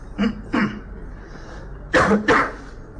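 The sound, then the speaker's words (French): A man coughs into his fist, four short muffled coughs in two quick pairs, the second pair louder and harsher, with no talking. “Donc, il tousse dans son poing, il donne un masque contaminé à son soldat, je sais pas trop.”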